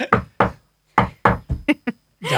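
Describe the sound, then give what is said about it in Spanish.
A series of about seven firm knocks on a door in a playful rhythm, the last few quicker, loud, followed by a brief rustling noise; no talking. “¿Alguien llama?”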